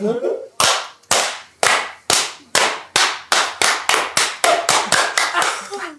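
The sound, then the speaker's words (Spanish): About a dozen sharp, loud hand claps, spaced out at first and then quickening into a faster rhythm, each one ringing briefly before the next. “La voy a poner a aplaudir, pero sin dar aplauso, ¿sabes?”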